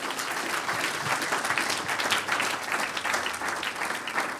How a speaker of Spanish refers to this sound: ¿Cuánto lo creen? Denle un aplauso al Señor si usted lo cree.